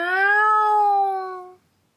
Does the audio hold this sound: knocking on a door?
no